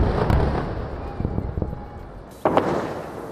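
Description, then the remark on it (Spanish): Several muffled explosions thud from an Israeli bombardment of Gaza in the morning, in an offensive involving tanks, soldiers and aircraft: a few scattered booms followed by a louder, sharper blast near the end, over a constant rumbling background. “Siete días sin escuchar los bombardeos israelíes han terminado y de nuevo el sonido en Gaza esta mañana es el de las explosiones.”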